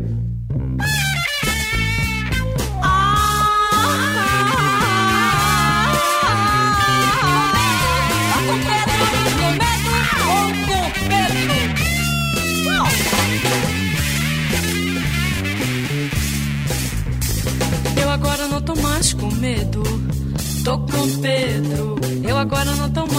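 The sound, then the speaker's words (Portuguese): A pop song plays continuously at steady volume, with a woman singing a winding melody in Portuguese over full band accompaniment of bass, chords and rhythm throughout. “E a gente vai ouvir um exemplo disso que a gente está falando agora”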